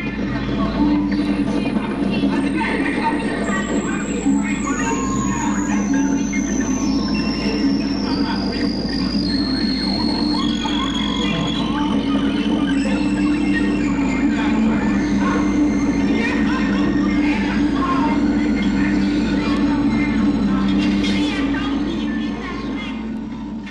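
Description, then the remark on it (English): Audio feedback from a vocal microphone placed in an unusual position, used as a musical effect in a 1964 recording: piercing whistling tones that step downward in pitch, one after another, over a loud, dense wash of music that continues throughout. “It was simple feedback through a vocal mic placed in the wrong but very right position.”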